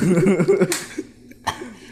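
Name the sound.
coughing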